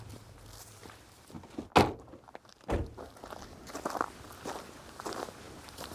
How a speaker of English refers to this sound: We walk to the water's edge. Oh, we're standing on the edge of some beautiful wetlands.